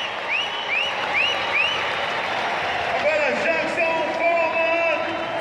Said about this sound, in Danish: Nu er det, nu er det Jackson Follman, der kommer, kommer trillende. Og han får måske lige så, lige så ja, kæmpe fortjent bifald af, af, af publikum.